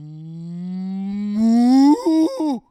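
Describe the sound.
A person imitates a cow's moo with one long, low, droning voiced tone that slowly rises and grows louder, ending in a few wavering pitch jumps before cutting off. No other sounds.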